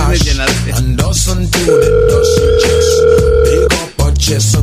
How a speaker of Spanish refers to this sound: Oye, contesta Oye, el teléfono, hombre.